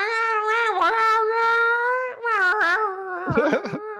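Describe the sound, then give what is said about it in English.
Cats in heat yowl loudly in long, wavering, drawn-out wails, one cry running into the next before breaking into shorter, choppier cries near the end. No one speaks. “I'm like, oh man, those cats are in heat, you know.”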